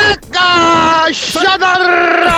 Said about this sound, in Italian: Niente, ormai sono liberi. Fateci sentire il vostro urlo di Munk, dai, dai.